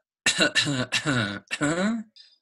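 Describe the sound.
A person clears their throat in several rough, voiced bursts in quick succession, fairly loud, imitating a cough, with a brief faint sound trailing at the end.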